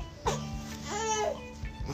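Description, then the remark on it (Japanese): A baby daughter, held in someone's arms, fusses and whimpers, a brief wavering cry rising and falling over about a second, with short fretful vocal bursts around it. “機嫌そんなに悪くないと思うんですけどなんかねあの機嫌良かったりちょっとこんな感じでぐずったりの行ったり来たりなので”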